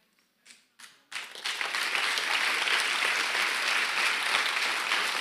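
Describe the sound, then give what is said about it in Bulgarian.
A few scattered claps start things off, then a whole audience breaks into sustained, dense applause that stays loud and steady to the end. “О, ако ръкопляскаш, ръкопляскай, като че наистина имаш свобода, която Бог ти е дал.”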